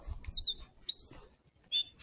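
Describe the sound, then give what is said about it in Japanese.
Birds chirp outdoors in short, high-pitched bursts, three separate calls spread across a couple of seconds, with a low rumble of ambient noise underneath and no talking, heard on a walk near a family home on May 4, on a day with little wind. “鳥の声もチュンチュン鳴いております。”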